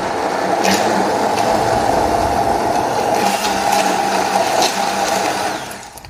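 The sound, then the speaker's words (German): A blender roars steadily as it purées food in an open container as finely as possible. It is a loud, continuous motor whine with a churning, gritty texture, holding for several seconds before easing off at the very end. No one speaks. “So, für euch werde ich natürlich nachher hier das Mixgeräusch ein bisschen schneiden, damit ihr nicht die ganze Zeit hier dem brüllenden äh, Mixer zuhört.”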